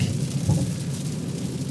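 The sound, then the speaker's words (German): Heavy rain pours down in a steady, dense hiss, with a deep low rumble underneath, heard from inside a car. No one speaks. “Und äh, jetzt regnet es in Strömen und eigentlich hätte ich ja schon Bock, jetzt weiß ich, alle vier Fenster aufzureißen und mich richtig schön durchregnen zu lassen.”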